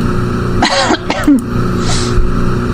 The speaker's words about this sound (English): That was a very well-timed cough.